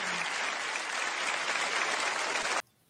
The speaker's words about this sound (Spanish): Un aplauso para él también, por favor. Que lo sienta.